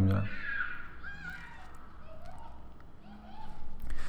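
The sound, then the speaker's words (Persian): Children shriek and shout while playing outdoors, their high-pitched cries rising and falling in a steady jumble of voices that stays in the background throughout. “این صدای جیغ منو کنار یعنی منو داره اذیت میکنه شما رو”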